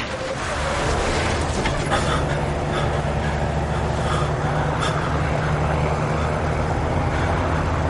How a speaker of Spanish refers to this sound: Mac mira al asiento trasero, se salta un stop, llega un camión, acelera en el cruce y da un volantazo, se queda cruzado en la carretera.